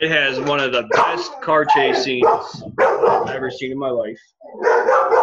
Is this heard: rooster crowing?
no